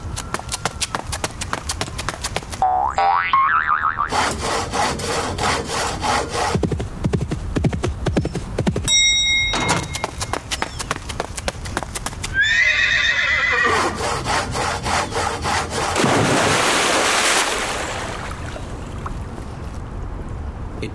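Horses whinny loudly a couple of times over a dense, busy clatter of hooves and scraping noise, the shrill neighs rising and falling amid continuous rough commotion.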